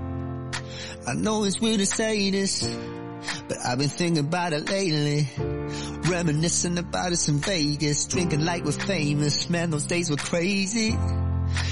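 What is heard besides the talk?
pop song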